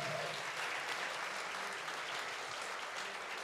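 A church audience at Filadélfia Laranjeiras applauds the Lord as pastors are called up to preach, a steady, dense wash of clapping that holds at an even level for several seconds, with no voices standing out above it.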